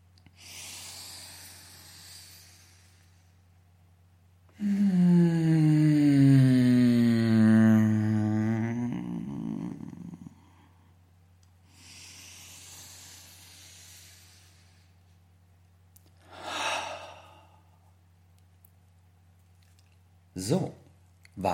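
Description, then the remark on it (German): During a breathing exercise, a soft inhale, then a long, loud, pleasurable voiced moan on the out-breath while rolling forward, its pitch sliding gradually downward. Quieter breathing and a couple of short sniffs or puffs follow. “Das heißt, beim Ausatmen, beim nach vorne rollen, machst du auch ein genussvolles Geräusch und kombinierst dementsprechend die Techniken.”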